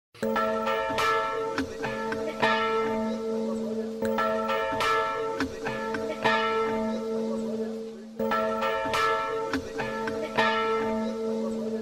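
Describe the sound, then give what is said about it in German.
Church bells ring out steadily from the tower of the Maria Geburt church in Zettwing, a continuous peal of overlapping strikes with rich sustained tones, loud and full throughout with no voices. “August 2005 erklang nach über 60 Jahren vom Turm der Zettwinger Maria Geburtkirche Glockengeläute, gespendet von der Pfarre St.”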